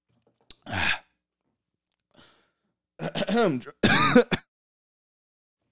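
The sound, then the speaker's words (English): Several loud coughs from someone who drank soda too fast come in separate bursts with short pauses between them, mixed with harsh throat-clearing. No one speaks. “Drink that soda too fast.”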